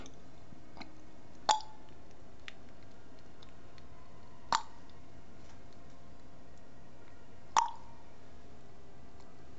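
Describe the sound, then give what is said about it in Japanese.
Three water drops fall about three seconds apart over a faint steady background. Each is a sharp plink followed by a brief, bell-like ringing tone, like a suikinkutsu, a water chime where water drips into a buried pot. “音が今、聞こえたねそうなんですよ音が聞こえて私が喋っちゃうとちょっと聞こえないかなと思っていや水筋窟のような音だね”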